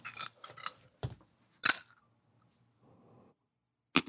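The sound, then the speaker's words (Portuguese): A foley crunch of a nose breaking: a quick cluster of crackly snaps, then a few sharper, louder cracks spaced apart, dry with no voices. “Se eu tentar quebrar o seu nariz com a mão. Como é que seria?”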